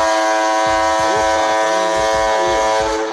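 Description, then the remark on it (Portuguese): A ship's horn gives a loud, sustained low blast that drones steadily through the whole clip, rich in harmonics, with faint wavering tones riding over it and no one speaking. “É a buzina de navio.”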